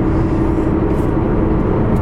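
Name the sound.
car interior noise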